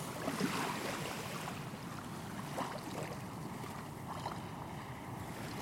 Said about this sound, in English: these lapping waves are lapping ever closer. I know, uh, about two metres away now? I'd say half a metre.